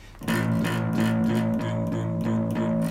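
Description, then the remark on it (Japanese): A four-string electric bass plucks the same low root note A over and over in an even, steady eighth-note pulse, fairly loud, with no other instruments or voices. “まあ、8ビートで言うんだったら、まあ、基本的にコードが A っていうコードだったら、まあ、一番シンプルなパターンはルート弾きって言ってあのルート音ですね、えー、A だったら A という一番下の音ですねこれをルート音って言うんですけどもこのルート音をただひたすら、えー、ズンズンズンズンズンズンズンズンって弾くのが一番オーソドックスなパターンですね。”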